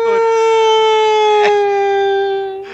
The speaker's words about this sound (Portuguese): Isso é um toque de celular. É, macho. Tá certo. Caralho, eu pensei que tava passando ambulância aí na sua eu rua.